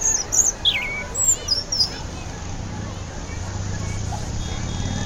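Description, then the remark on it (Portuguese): A rufous-bellied thrush (sabiá) sings a few bright, quick phrases in the first couple of seconds, fairly clear above a steady rumble of traffic in a busy, noisy city neighborhood that carries on after the bird falls silent. “O sabiá”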